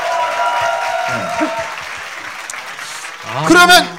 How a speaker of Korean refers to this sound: 너무 멋지지 않으세요? 박수 한번 세요!